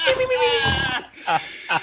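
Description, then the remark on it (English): A person imitates snoring with a drawn-out, buzzy voiced inhale lasting about a second, followed by a brief pause and two short breathy, snorting bursts. “Uh, this call's making me snore.”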